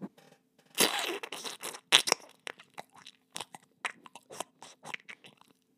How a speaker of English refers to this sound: I come back in the party and I've got a fucking tangerine. I just squish the tangerine right into my mic. It sounds like this.